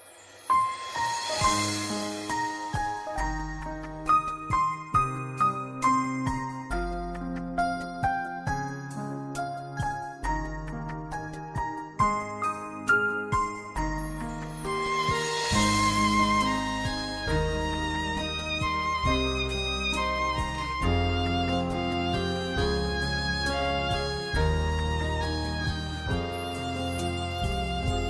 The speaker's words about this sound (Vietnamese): còn bây giờ là ca khúc kiếp má hồng chúng ta sẽ cùng lắng nghe